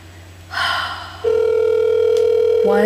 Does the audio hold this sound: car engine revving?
no